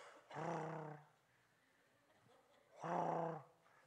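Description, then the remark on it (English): A voice imitates the whistling of a paddle with holes in it being spun on a leather strap, with two loud, drawn-out whooshing hoots, each about half a second long, separated by a short pause. “he would walk the halls and he had this paddle, he had it on a leather strap, and he would spin it, and it had holes in it, it would whistle like this.”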